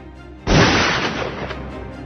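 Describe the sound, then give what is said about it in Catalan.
A soldier fires a single loud rifle shot that cracks out suddenly after a short quiet stretch. Its sharp blast trails into a long rumbling echo that fades slowly over the next second and a half. “El tret li rebentà el crani i el soldat bramà, triomfal, feliç.”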